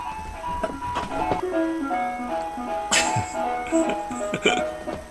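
An ice cream van's chime plays its tinkly, stepping melody, fairly loud and steady, with a brief burst of clattering noise partway through and no talking.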